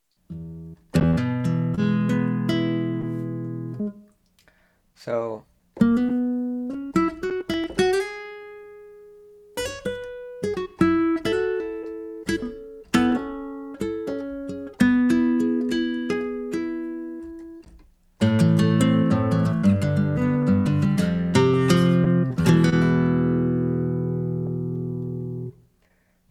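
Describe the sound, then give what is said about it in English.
Sampled acoustic guitar played on a keyboard: plucked notes ring out in chords and short melodic runs, some strummed hard with a bright attack as keys are pressed harder, played alone for about twenty-five seconds with brief pauses; a voice says one word at the start. “The harder you press the key, the harder it strums yep. the string in the sample.”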